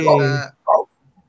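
A dog, just woken up by another small dog, lets out two loud barks, the first long and drawn out, the second short and sharp, followed by quiet.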